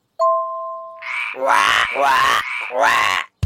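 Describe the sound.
Three loud, drawn-out, raspy frog croaks in steady succession, made by a voice imitating a frog, preceded by a brief steady tone.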